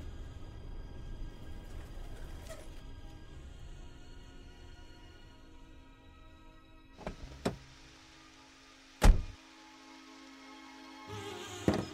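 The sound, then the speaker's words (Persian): A car idles with a steady low engine rumble, broken by a few sharp mechanical clicks and thumps, like a window motor or door handle working. No one speaks. “انگار دارم منم یه چیزایی میشنوم نکنه صدای ماشینه”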